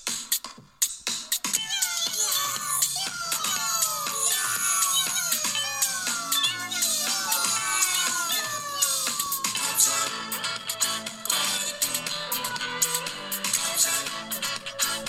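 Several cats meow over and over, their rising and falling cries overlapping into a busy, continuous chorus that stays loud for the whole stretch.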